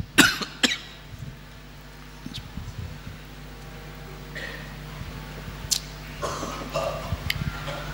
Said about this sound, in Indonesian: Siapa itu yang ikut batuk juga? Antum satu hati banget sama Ana ya.